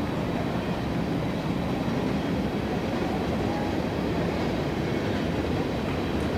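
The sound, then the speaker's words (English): A long freight train rolls past on the tracks outside the right field wall of a baseball field during a game, a steady, unbroken rumble and rattle of cars that holds at an even level throughout, with no voices over it. “That is a rather lengthy train still going by on the tracks outside the right field wall.”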